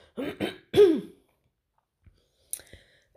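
A person clears their throat in three quick, rough bursts, followed by silence and then a faint click and a short breathy sound.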